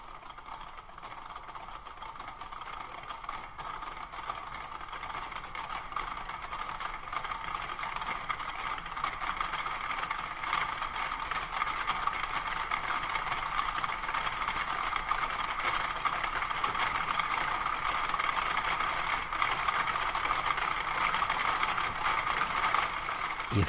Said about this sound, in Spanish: efectivamente el nombre no engaña, son 100 metrónomos sonando. Sí, son 100 metrónomos, de nuevo estamos en 1963,